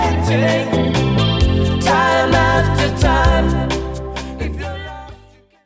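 A pop song plays loud and full, with a steady beat and layered male vocals with backing harmonies, then fades out at the very end.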